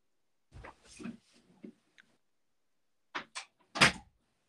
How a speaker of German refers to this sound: Ich hoffe, du hörst meine Tür, warte.